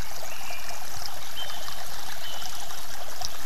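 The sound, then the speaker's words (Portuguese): Steady, continuous babbling of a flowing stream, a dense bright rush of water with no pauses and no voices. “Assim como o monge, meditamos seguindo o fluxo da água.”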